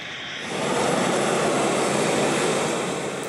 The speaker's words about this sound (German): Und ihr wart auch mal am Flughafen dabei, als so ein Flugzeug mit Verletzten angekommen ist, ne?